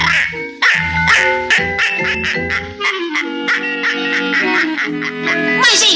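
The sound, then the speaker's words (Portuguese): An old duck quacks loudly and rapidly in a nearly continuous string of nasal, honking calls, with no talking over it. “Veja este mísero e envelhecido pato. Agora eu faço ele passar pela fonte.”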